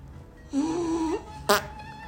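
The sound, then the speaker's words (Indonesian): A drawn-out, buzzy fart lasting about half a second, followed a moment later by a short, sharp burst of noise, against a quiet background. “Nah sekarang mah ada kentut.”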